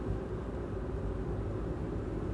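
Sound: car interior noise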